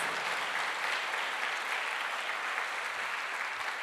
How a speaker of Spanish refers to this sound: Dele fuerte ese aplauso al Señor. Fuerte ese aplauso.